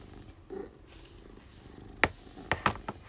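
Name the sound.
cat purring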